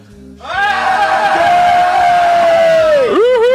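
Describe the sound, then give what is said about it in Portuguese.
A loud, sustained shout from several voices holds one high pitch for about three seconds, then dips and rises at the end, a celebratory group yell to welcome a new member. “ela entrou, ela é no, nossa nova membra, e sempre quando entra um membro, a gente grita.”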